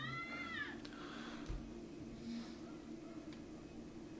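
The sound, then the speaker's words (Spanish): A cat lets out a loud, drawn-out meow with a wavering pitch, followed by fainter yowling and a steady low hum in the background. “una disculpa por la melódica voz de mi vecina. Parece que el León estaba muy ocupado y no podía atender a su llamado.”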